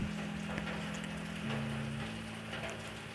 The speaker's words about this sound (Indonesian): Oh iya, kali ini aku ditemani oleh rintik hujan.